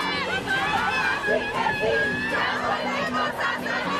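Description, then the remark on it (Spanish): A large crowd of tens of thousands of women chants together at an 8 March protest march demanding justice, many voices shouting in a steady, loud, continuous roar that fills the whole scene without a break. “Este 8 de marzo, decenas de miles de mujeres salieron a marchar para exigir justicia.”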